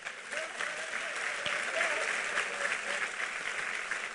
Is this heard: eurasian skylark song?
no